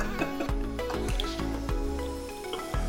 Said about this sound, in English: I, I hope that the microphone picked up that fart because we're gonna put it in the bloopers. We're putting it in the bloopers.